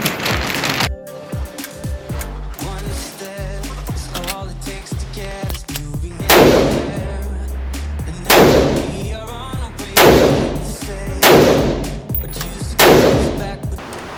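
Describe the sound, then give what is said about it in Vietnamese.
Five loud rifle shots from an AR-15 ring out one after another at uneven intervals, each with a sharp crack and short echoing tail, over steady background music. “nó mạnh hơn cái súng nãy mình tích nghĩ chắc gấp đôi wow khẩu này là khẩu gì hả đây là khẩu AR15”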